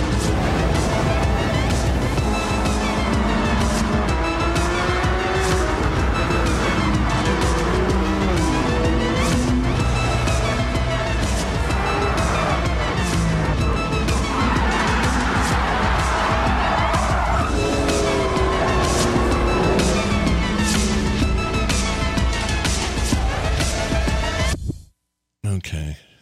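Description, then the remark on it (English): Race car engines roar continuously with rising and falling pitch, punctuated by screeching tire skids, all loud and busy, with a brief cutout near the end. “I just don't care enough about cars on this.”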